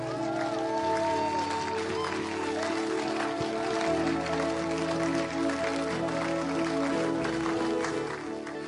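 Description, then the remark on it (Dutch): An audience applauds steadily for several seconds, giving Jesus a big round of applause, a dense, even wash of clapping from many hands, with sustained musical tones underneath. “Zullen we Jezus even een heel groot applaus geven?”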